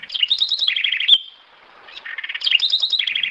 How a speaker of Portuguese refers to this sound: E a corruíra.